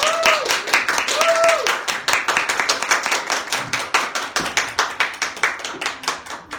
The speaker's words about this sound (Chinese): 那我们现在掌声欢迎陈秀男老师。